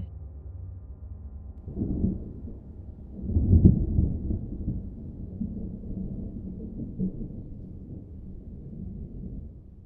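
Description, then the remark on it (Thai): Deep rolling thunder from a lightning strike, a low rumble that swells into a heavy boom early on and then grumbles steadily on without fading away, with no voices present. “และเมื่อแสงจากฟ้าผ่าสว่างวาบขึ้นมา ความกลัวของผมก็พุ่งถึงขีดสุด”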